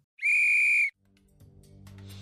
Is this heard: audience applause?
no